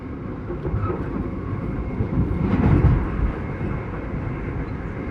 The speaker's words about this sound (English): I pondered this as I sat in a nearly empty train car sliding through the south of Germany.